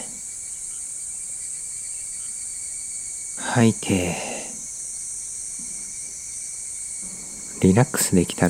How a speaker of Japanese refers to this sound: 軽く目を閉じて喧騒とは無縁のゆったりした田舎の静かな夕暮れをイメージしてみてくださいスズムシの鳴き声や風に揺れるキーの心地よい音が聞こえてきます